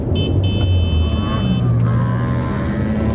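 A car engine roars as a vehicle overtakes on the right on the road, its steady rumble shifting as it goes, while a sharp high horn-like tone sounds for about a second at the start.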